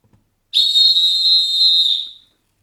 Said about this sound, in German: Und deshalb pfeife ich jetzt das Viertel an.